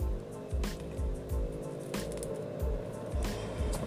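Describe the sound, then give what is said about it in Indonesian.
A motorcycle engine drones outside at moderate volume, its steady rumble carrying through for several seconds with rhythmic low throbbing and a few brief hissy bursts, no one talking. “denger nih ada motor lagi nah kan gila gila nggak bisa habis”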